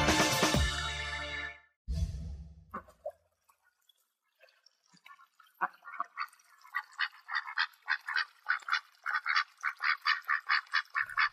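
After a short loud burst and a pause, a duck quacks in quick, rhythmic bursts that grow steadier and more insistent, clear with no talking.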